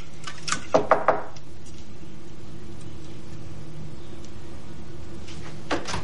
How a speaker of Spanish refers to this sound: En un pasillo, Libby golpea una puerta. Sostiene dos latas de refresco.